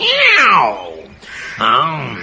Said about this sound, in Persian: امان از دست این گربه ناقلا.